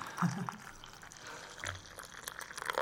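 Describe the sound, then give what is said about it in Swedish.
Coffee pours into a cup, a steady trickling, gurgling stream with a few louder splashes at the start, lasting a few seconds with no talking over it. “Man kan höra kaffeljudet.”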